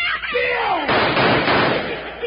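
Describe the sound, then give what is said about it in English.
A falling whine gives way to a loud, harsh burst of gunfire, followed by a rough, noisy crackle that lasts about a second and a half before easing off. “It's lucky you didn't hit it with them shots.”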